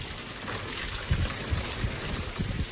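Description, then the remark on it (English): Water splashes and churns steadily as dogs that love the water play in it, a bright hissing wash broken by a few soft low thumps. No voices are heard. “You have the dogs that love the water.”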